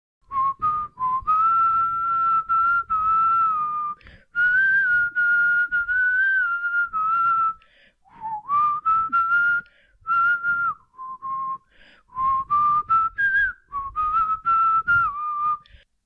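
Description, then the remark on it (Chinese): A person whistles a pop song melody alone, in clear, steady phrases of held and stepping notes, with brief breaks between phrases and no talking. “我在吹的时候，我非常满意，因为今天的声音非常的饱满，我很高兴，我很开心”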